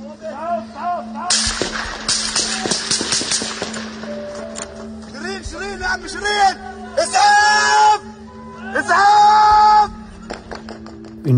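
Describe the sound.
Sharp gunshots crack at fairly regular intervals, loud, while people shout and a voice screams in distress between the bursts.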